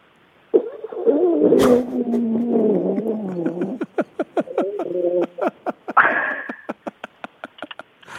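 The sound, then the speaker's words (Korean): A voice imitates a gurgling stomach upset by gastroenteritis: a long warbling, rumbling groan followed by a rapid series of short bubbling pops and squelches, fairly loud. “그러면 장염 걸렸을 때 나는 소리 해보겠습니다.”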